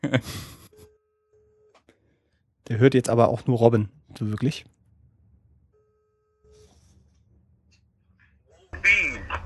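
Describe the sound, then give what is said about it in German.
A telephone ringback tone plays over a speakerphone as someone calls their father, two steady, fairly quiet hums about a second long with a pause between, while people talk and laugh. “Ich rufe einfach mal an. So, ruf, ruf einfach mal Lautsprecher, genau.”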